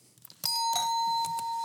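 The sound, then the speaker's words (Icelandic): An electronic quiz bell rings out loudly and repeatedly, several sharp chimes in quick succession with a bright, sustained tone ringing between them. No one speaks. “Þetta er bara bjöllukonsert.”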